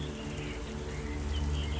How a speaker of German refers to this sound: Ja, jetzt also stehe ich da mitten im Wald. Es regnet zwar, aber im Wald ein bisschen weniger.